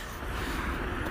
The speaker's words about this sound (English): the road noises you hear our Wolf Road, but I am walking to work in the morning.